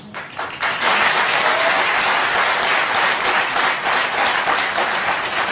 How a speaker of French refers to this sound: Voilà, on va laisser vos fans vous applaudir